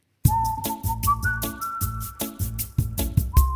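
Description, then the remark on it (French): A short, upbeat jingle with a bright whistled melody gliding between notes over a steady rhythmic backing beat, loud, with no talking. “Et je vous propose de passer à cette partie juste après notre petit jingle.”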